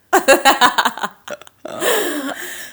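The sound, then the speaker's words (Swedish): A burst of rhythmic laughter, then after a short pause a drawn-out, throaty burp rumbles for nearly a second. “Sorry, jag rapar.”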